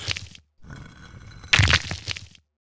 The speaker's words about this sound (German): Bevor man hier in den nächsten Raum kommt, muss man eine Art Rätsel mit Dominosteinen lösen. Aber warum eigentlich? Hm. Oh, ich habe mich versehentlich auf einen der Steine gelehnt und jetzt ist er umgefallen. Und oh Gott.